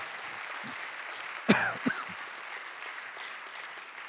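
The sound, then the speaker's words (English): A crowd claps hands steadily on a Sunday morning, a dense, even patter of many hands, with a brief louder burst like a shout or cheer about a third of the way in. “Can we just clap our hands on a Sunday morning and receive the word over our lives?”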